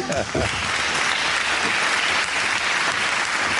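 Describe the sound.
Steady applause from an audience fills the whole stretch, dense and fairly loud, with a brief voice or two audible under the clapping near the start.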